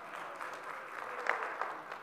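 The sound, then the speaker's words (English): A crowd in a church applauds steadily for a newly married couple, a dense wash of many hands clapping at a moderate level, with a couple of sharper claps standing out near the end. “So, um, uh, yeah, you can, you can clap for that.”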